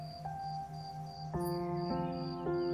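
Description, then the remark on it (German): A grasshopper in a meadow chirps by rubbing its legs or wings together, in steady, rapid high-pitched pulses that repeat throughout, layered over sustained humming tones that shift and stack at a few points. No one speaks. “Das Zirpen erzeugen sie, indem sie ihre Beine oder Flügel aneinander reiben.”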